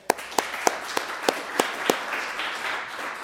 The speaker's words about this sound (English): so a big round of applause for there.